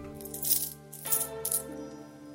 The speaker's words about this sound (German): Er öffnet die Schublade und wirft die Münzen hinein.